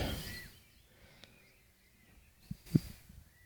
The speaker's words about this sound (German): wirklich fast berauschenden Vogelkonzert.